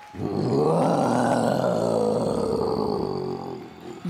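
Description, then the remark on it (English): A deep, growling Tyrannosaurus rex roar surges up loud, holding for about four seconds with a rough, rumbling texture before tapering off. No one speaks over it. “The Tyrannosaurus Rex has one of the loudest and longest roars around.”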